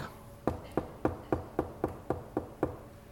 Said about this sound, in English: Jesus said in Revelation, Behold, I stand at the door knock.